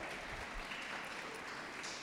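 An audience applauding: a dense, steady wash of many hands clapping that holds at an even level for the whole two seconds, with no voices over it.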